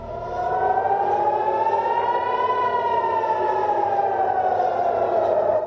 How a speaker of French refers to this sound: À Tel Aviv, comme dans plusieurs villes israéliennes ce matin, les sirènes d'alerte retentissent. On entend même des bruits d'explosion. À 5h30 heure française, des centaines de roquettes ont été tirées depuis la bande de Gaza vers Israël.